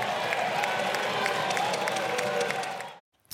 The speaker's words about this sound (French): à gauche, cette intervention a scindé les députés hein, en deux. Il y a ceux qui applaudissent et celles qui partent